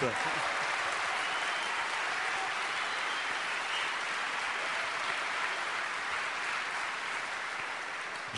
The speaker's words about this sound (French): Bonjour à tous. on peut l'applaudir très fort, on peut l'acclamer. Votre maire de Balassette.